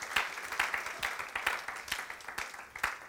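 An audience at a church service claps together as an offering of applause to God, a steady, rhythmic applause, sharp bright claps repeating roughly every half second at a moderate level, with no voices over it.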